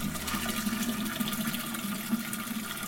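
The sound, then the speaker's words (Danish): Steady rush of 19 liters of water pouring into a large brewing pot, a continuous filling sound with a resonant low hum, fairly loud, with no talking. “Så skal vi have 19 liter vand op i gryden.”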